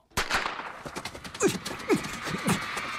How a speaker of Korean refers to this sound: 다시 긴장이 고조된 경기장 순간 스타트건의 총성이 울리죠